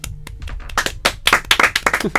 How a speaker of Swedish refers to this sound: Hur kan ni applådera?